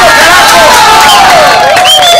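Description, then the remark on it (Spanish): Loud, continuous crowd applause mixed with cheering and shrill whistles, a dense wash of clapping filling the whole moment without a break. “Este es el aplauso para los negritos del trufi 1”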